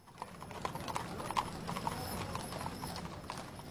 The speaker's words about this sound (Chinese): 于是他捡起一块硬币，朝我鞠了个大躬，跳上马车走了。